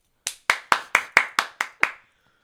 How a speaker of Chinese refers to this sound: 那有掌声鼓励吗？ 掌声鼓励。